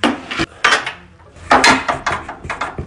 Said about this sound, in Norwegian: driver altså Jon Almås og jekker og sikrer pulten sin. En søppeldunk, på pulten.